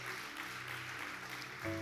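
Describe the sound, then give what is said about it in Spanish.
An audience claps together in a dense, steady burst of applause given to God, with a sustained low musical tone underneath that shifts pitch near the end. “Eso, podemos dar un fuerte aplauso a Dios.”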